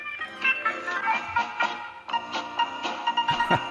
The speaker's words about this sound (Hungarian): csak a csengő hangomat megmutatnám nektek, hogy vajon ki az, aki felismeri.